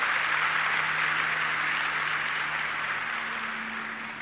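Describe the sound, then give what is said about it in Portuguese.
An audience applauding in a steady, dense wash of clapping that fills the space, holding at an even level before easing off slightly toward the end, with no voices over it. “pode aplaudir o Senhor, a mim não, Senhor.”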